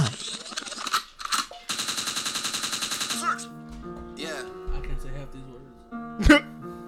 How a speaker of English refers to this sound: Bigwood means rewind, a gunshot means forward.